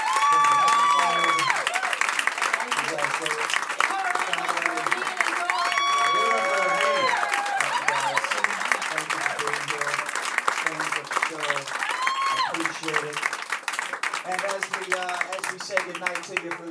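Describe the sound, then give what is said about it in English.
Loud, sustained applause from a show audience for the guests fills the whole stretch, a dense steady wash of clapping with voices cheering and whooping over it in rising and falling bursts. “Guys, uh, big round of applause for my guests.”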